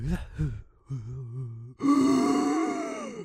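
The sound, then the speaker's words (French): A voice imitates a woman's desperate gasp for air after she fell to the floor: short strained vocal bursts, then a loud, breathy, rasping intake that stretches out for over a second. “Comme si elle était en dessous de l'eau pendant 45 minutes, puis elle prend de l'air là, puis elle fait.”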